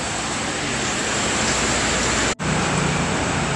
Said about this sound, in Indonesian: Nah, sementara kita di situ dulu karena ini lagi hujan lebat, uh, rasanya kayak alam lembah tidar pindah ke sini ya.